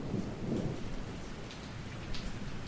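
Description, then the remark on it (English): Steady rain falls with a low, rumbling roll of thunder underneath, a continuous wash of patter that swells slightly near the end, with no voices present. “Outside, it was raining.”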